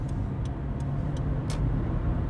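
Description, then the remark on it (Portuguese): A number 19 city bus that someone is boarding: the engine rumbles steadily, with a few short, evenly spaced hisses of air and a slightly longer burst near the end, like air brakes releasing. “pá, desculpem, estava a entrar para esse 19.”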